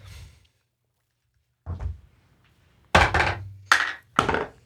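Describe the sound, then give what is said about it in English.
Dice clatter across a tabletop in several separate rolls of a roll-off involving everybody: a faint rattle, then a short tumble, then three louder, sharper bursts in quick succession. No one speaks. “And I think what that means is that we have to do a roll off at the top of this episode.”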